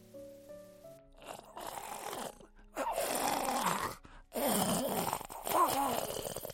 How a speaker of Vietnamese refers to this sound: Tiếng đờm khủng khục này là của bệnh nhân